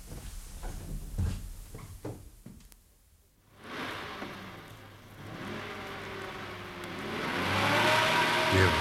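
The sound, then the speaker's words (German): A few clunks and thuds, like a car door and someone settling in, then a brief pause before an engine starts and rumbles louder as the car pulls away and drives off. “Und jetzt auf in den Wagen zum Rasmussen.”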